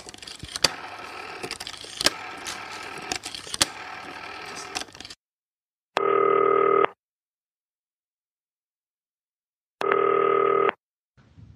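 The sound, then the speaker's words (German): A call on a green telephone: a few seconds of noisy clicking as a number is dialed, then two separate buzzing ring tones about four seconds apart, with silence between them and no voices. “Ab ans grüne Telefon.”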